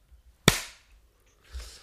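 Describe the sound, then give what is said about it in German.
A single sharp hand clap on a count of three, made after recording starts, a loud instant crack with a brief decaying tail, followed by quiet and a softer low rustle about a second later. “3, 2, 1, Klatsch.”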